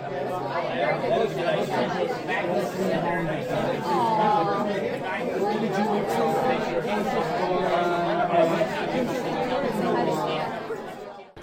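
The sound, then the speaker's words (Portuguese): Dense crowd chatter fills the busy university restaurant Setorial 1, many overlapping voices at a steady, loud level with no single speaker standing out, continuous for the whole stretch. “seguirmos até chegarmos ao restaurante Setorial 1. Dependendo da hora, teremos uma grande fila, um cheiro de comida brasileira, mas.”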